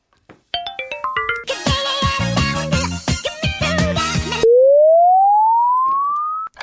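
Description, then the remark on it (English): A short, loud snippet of a K-pop song: bright plucked notes climb quickly, a dense beat-driven section with heavy percussion kicks in, then it cuts to a single long rising synth tone. “we have one more song that we need to tackle. So let's take a listen to it.”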